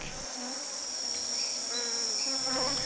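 Insects stridulate in a steady, high-pitched shimmering drone that runs unbroken throughout, with faint chirps and scattered softer calls layered beneath it. No one speaks.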